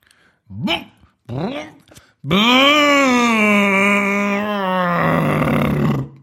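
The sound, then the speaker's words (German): A voice imitates a lawnmower: three short, rising grunts like pull-starts, then a loud, sustained droning hum lasting about four seconds that roughens near the end before cutting off. “Ein Rasenmäher.”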